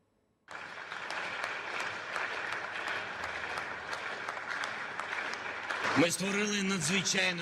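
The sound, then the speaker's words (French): Members of the Ukrainian Parliament in Kyiv applaud as the European flag is unfurled, celebrating Ukraine's status as an EU candidate country, in a dense, sustained roar of clapping that starts abruptly and holds steady, with a man's voice beginning to speak over it near the end. “le drapeau européen a été déployé au Parlement ukrainien à Kiev sous les applaudissements des députés”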